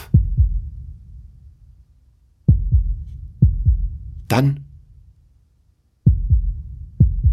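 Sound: heartbeat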